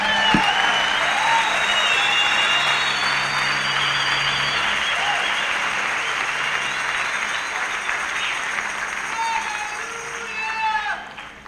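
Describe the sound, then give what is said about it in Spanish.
An audience breaks into sustained applause for the Lord, a dense, steady wash of many hands clapping that holds for several seconds, then gradually thins and tapers toward the end. “Si quiere le da un aplauso al Señor”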